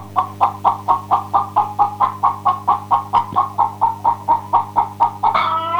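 Chickens clucking in a steady, rapid series of short pulses, about three per second, fairly close and clear over a constant low hum, ending with a louder, rising squawk.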